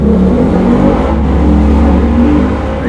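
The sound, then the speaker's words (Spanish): A motorcycle engine revs loudly, a continuous deep rumbling drone with rising and falling pitch that fills all three seconds, with no voices. “Se sí, muy cabrona mi moto, güey.”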